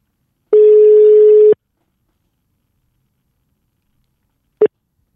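A steady telephone ringback tone sounds for about a second, then after a long silence a second ring begins and is cut off almost at once, as if the call was answered.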